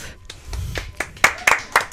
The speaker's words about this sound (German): Applaus für Anna Nigers. Herzlichen Glückwunsch, Anna.